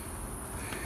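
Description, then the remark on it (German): A faint, steady chorus of crickets chirping shortly after 10 in the evening along a tree-lined avenue by the Neckar in Mannheim, a continuous high trilling hum with no voices present. “Man hört die Grillen zirpen.”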